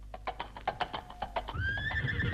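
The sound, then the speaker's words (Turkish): A horse that has broken loose from its cart harness whinnies in a long, quavering call of rapid pulsing bursts that rises into a higher, sustained squeal, fairly loud, with no one speaking. “Hani yolda bir arabacıya rastlamıştık ya Atını yitirmiş adamcağız At koşumları sökmüş arabadan Tırsa kalkmış Ha bak dinle dinle”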